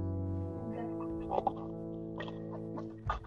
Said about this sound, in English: as you can, can hear um, uh, the creaking of boards up top.